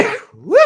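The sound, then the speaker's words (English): A single sneeze: a sharp, breathy burst that trails into a brief voiced, rising-and-falling cry, all over in under a second. “now that's twice today. Bless you.”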